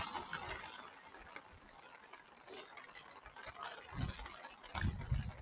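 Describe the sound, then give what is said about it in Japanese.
Fairly heavy rain patters steadily, picked up by the microphone of a man who is outdoors in it, a dense crackle of small drops with a few heavier thumps near the end. It is fairly quiet overall, and no one speaks. “兄さん、雨大丈夫ですか結構ね、え、これ音鳴ってますうるさい結構ボツボツ入ってる。”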